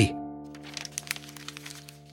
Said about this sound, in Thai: ผมคลี่กระดาษออก ดูปราดเดียวก็รู้ว่านี่คือปัวซูหรือผ้าไหมจารึกยุคจ้านกัว